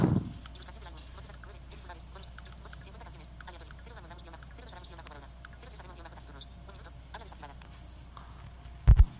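Harsh, unpitched bird calls chatter rapidly and continuously, a raspy, toneless stream of repeated notes at moderate volume, ending with a brief low thump.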